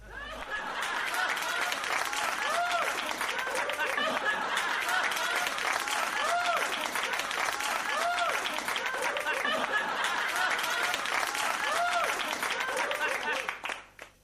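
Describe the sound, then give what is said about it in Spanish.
A crowd of children at a party claps steadily while high, excited laughter and shouts rise over the applause as a piñata is broken, sustained and lively throughout before stopping abruptly near the end. “Y los chicos, alegres, siguieron disfrutando de su fiesta, mientras uno de ellos, rompiendo la piñata, hizo caer una lluvia de caramelos y papeles de colores, al tiempo que crecieron los aplausos y las risas de felicidad de aquellos benditos niños.”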